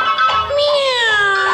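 A single long, loud meow made by a human voice imitating a cat while telling a Christmas animal story, its tone sliding gradually downward in pitch over about a second and a half.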